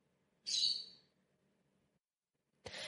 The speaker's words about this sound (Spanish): ¿Qué haría con el pobre Pluma? ¿Lo escucháis? Todo el programa aquí piando para que el pobre salga volando.